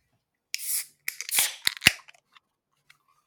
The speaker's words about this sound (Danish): Hvad er det samme, når man åbner en dåseøl?